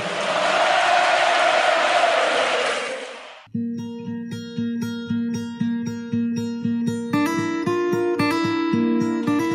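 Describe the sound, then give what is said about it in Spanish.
A loud, dense football stadium crowd chants and roars for about three seconds, then cuts abruptly to a bright music piece with a steady pulsing beat. “para vos que te gusta la cancha.”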